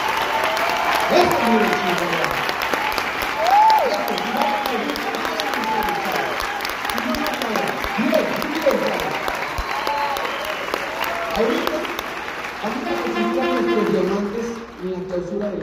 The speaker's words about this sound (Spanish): a nuestros mentores. Yo quiero que les aplaudan así, porque no se merecen lo mínimo.